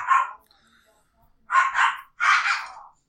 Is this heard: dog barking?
yes